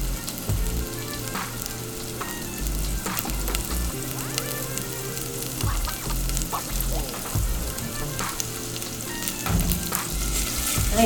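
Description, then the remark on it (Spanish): Salted vegetables for a sofrito sizzle steadily in a hot frying pan, a dense crackle with occasional louder pops and a faint clink of stirring, no voices. “Cuando tenemos un sonido muy de mucho chisporroteo en los sofritos, es que sabemos que hay que bajarle un poquito el fuego para que se nos cocinen un poquitín más lento y puedan liberar como los sabores esenciales.”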